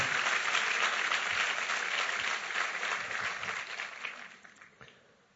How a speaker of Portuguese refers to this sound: Amém, irmão? Você pode aplaudir? Está ouvindo lá.